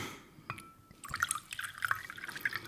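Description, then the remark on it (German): A drink is poured into a glass: a bright, bubbly trickle of liquid with small clinks and splashes, continuing steadily for a couple of seconds with no talking. “Aber höchstens ein Glas zur Feier des Lebens.”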